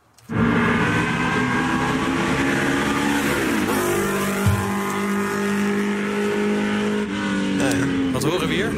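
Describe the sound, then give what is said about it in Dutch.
A 1964 Porsche 904 GTS sports car engine roars loudly and steadily, its pitch rising and shifting through several gear changes as it revs hard, with no voices over it. “Eh, laten we ook nog even eh, met een bijzondere Porsche aan de haal gaan met dit geluid.”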